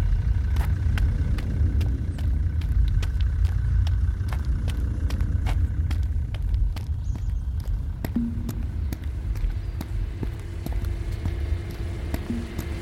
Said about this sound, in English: Cut the engine.